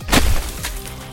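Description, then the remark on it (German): The ice fist of Vaporwave smashes into the ground next to the head of a conglomerate goon, with one loud, crunching crash and a glassy shattering edge, then a softer second crack and a low rumble fading away. No one speaks. “Die Eisfaust von Vaporwave knallt neben dem Kopf des Konglomerats-Goons auf den Boden.”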